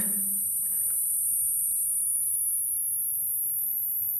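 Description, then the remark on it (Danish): A modulated synthesizer tone, its modulation increased, buzzes steadily at a very high pitch, sounding like a chorus of cicadas. No new tones, filtering, delay or reverb are added. It holds unbroken for several seconds with no talking. “Men ved at øge modulationen, så kan vi komme et sted hen, hvor det begynder at lyde af cikader.”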